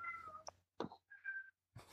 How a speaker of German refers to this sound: Ist das deine Katze im Hintergrund? So. Ja, ja, ich krieg, kann ihn leider nicht rauslassen, weil der kommt dann wieder rein.